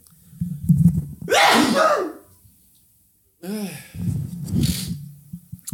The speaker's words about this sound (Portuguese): Ah, para puta vontade de espirrar, né?